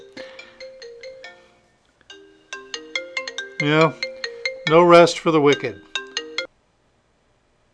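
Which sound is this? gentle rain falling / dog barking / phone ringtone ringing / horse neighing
phone ringtone ringing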